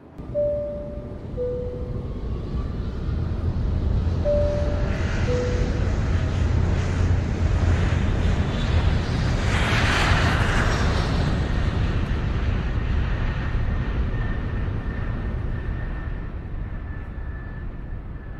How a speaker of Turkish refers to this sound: Şu anda İstanbul'dan havalanalı 10 dakika oldu deniz seviyesinden 29.000 fit ve 8.800 metre yükseklikteyiz.